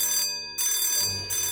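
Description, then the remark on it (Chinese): A loud alarm bell rings inside a house in rapid bursts, its bright metallic tone repeating with short breaks between rings, with no voices present. “顿时，屋里铃声大作”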